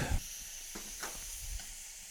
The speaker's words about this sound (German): So, und ihr hört schon, es dampft und zischt, die, die Zylinderhähne sind offen